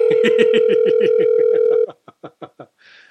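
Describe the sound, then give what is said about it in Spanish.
A steady telephone dial tone hums for nearly two seconds, then cuts off into a quick series of short dialing beeps as a call is redialed, ending with a faint hiss as the call connects. “Vamos a intentar llamarla nuevamente, quizás ya habrá apretado un botón mal. Vamos a llamarla otra vez.”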